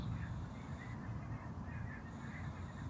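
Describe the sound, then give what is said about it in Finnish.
A huge flock of ducks or geese honks in a continuous, overlapping clamor, a steady wash of calls with no single bird standing out. “Että ja just tällä hetkellä mä kuulen jonkun ihan järjettömän ison, onko toi sorsaparvi vai hanhiparvi vai joku.”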